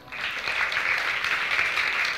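A crowd claps steadily, a dense, continuous patter of many hands at an even loudness throughout, with no voices over it.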